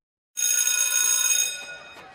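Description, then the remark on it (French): A loud electric school bell rings steadily for about a second at 8 o'clock, harsh and metallic with a dense high buzz, then cuts off and fades into a short ringing decay, calling pupils to the sand of a beach to start classes. “La sonnerie retentit à 8 heures les élèves doivent être prêts sur les sables de la plage pour commencer les cours.”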